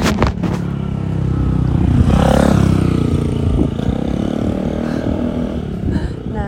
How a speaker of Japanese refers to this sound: バイクにね、うん、びっくりしてあれだったわ。